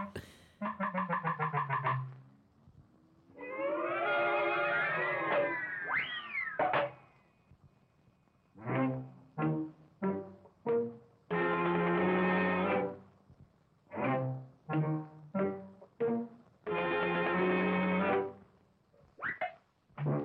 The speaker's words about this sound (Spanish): primer corto de esta serie, el famoso The Skeleton Dance, está muy vinculado a la música. Un corto además nada siniestro, muy del gusto infantil y muy para que los niños no tengan ni pesadillas ni nada. la danza de los esqueletos, vamos a escucharla.